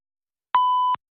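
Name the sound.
answering machine beep tone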